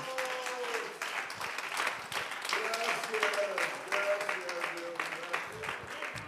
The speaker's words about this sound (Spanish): Aplauda la presencia de Dios, mi hermano.